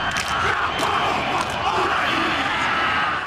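A large group of voices chants and shouts together in a loud, continuous roar, forceful and rhythmic: a Maori haka war dance, with performers singing loudly, stamping their feet on the ground and slapping their hands rhythmically on their bodies.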